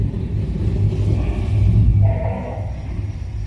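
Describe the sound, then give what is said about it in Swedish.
Deep, rumbling dinosaur exhibit sounds of dinosaurs moving, like a large creature stirring, a low growling drone that swells midway then eases off, with no talking. The exhibit shows a giant lizard that walks on two legs. “Ja, det är dinosaurier som låter.”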